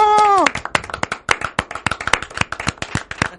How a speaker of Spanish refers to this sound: es un fuerte aplauso.